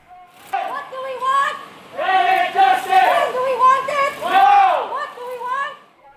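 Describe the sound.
Loud, sustained chanting from many voices at a climate protest, rising and falling in drawn-out phrases with brief pauses, a crowd shouting together for several seconds.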